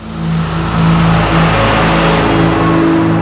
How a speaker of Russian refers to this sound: Это был огромный самосвал ЗИЛ с синей кабиной. До этого дня я никогда не был в грузовике, а тем более никогда на нем не ездил, да еще и в кабине. Представляешь, я был в сердце огромной, железной штуковины, которая неслась вперед на бешеной скорости.